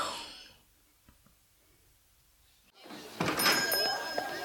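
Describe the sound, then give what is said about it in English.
After a quiet stretch, a shop door bumps open as a customer comes in, and a small bell above the door jingles with bright, clear, ringing tones, followed by a shuffle of movement. “Uh, you realize, of course, there's a more efficient way to let you know a customer has come in than the employment of that small bell above the door.”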